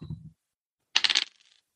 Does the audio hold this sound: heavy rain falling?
no